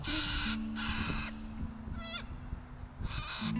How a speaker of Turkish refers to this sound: Niye bağırıyorsa bu papağan da beyaz papağan. Şeye çıkmış salıncağın üzerine çıkır çıkır bağırıyor. Şşt, ne oluyor lan? Hakikaten niye bağırıyor acaba?